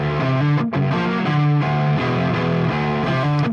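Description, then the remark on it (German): A heavily distorted electric guitar chugs through a riff of thick power chords, shifting between a few low pitches in a steady, driving rhythm, loud and dense throughout. “Dadurch, dass ich diese massiven Power Chords habe, bin ich mittendrin.”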